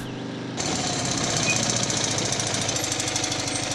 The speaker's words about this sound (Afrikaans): Nadat hulle 'n hele eind gery het, maak die kar se enjin skielik 'n vreemde proesgeluid en dit gaan staan.